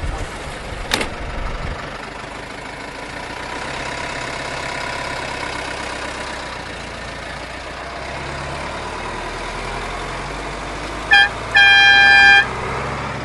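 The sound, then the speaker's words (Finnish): A mobile shop van's engine rumbles steadily as it pulls away and drives off to continue its round, with a thump near the start and two short horn toots, the second longer, near the end. “Simo Tiainen jatkaa kierrosta. Kauppa-auto liikkuu eri reiteillä viitenä päivänä viikossa.”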